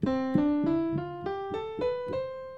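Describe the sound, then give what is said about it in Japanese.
Eight notes climb steadily up a scale starting from C on a keyboard-like instrument, each struck in doubled octaves at an even, unhurried pace, ringing clearly with no talking. “で全部これオクターブ弾くと”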